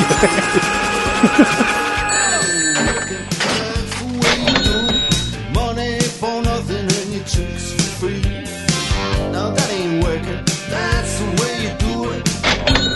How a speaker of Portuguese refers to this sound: Olha os barulhos de caixa registradoras, vamos.